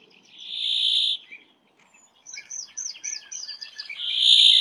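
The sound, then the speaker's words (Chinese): Finches calling on an overcast day, greenfinches and a flock of bramblings: a drawn-out, high wheezy buzz, then a run of quick twittering chirps, then the nasal buzz again. No one speaks. “让大家听了近一分钟的金翅雀的叫声”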